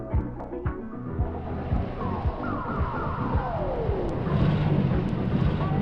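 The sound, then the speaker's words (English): A car drives back up, its engine rumble growing steadily louder, with a whining tone that slides downward as it approaches. “let's hear the car come back.”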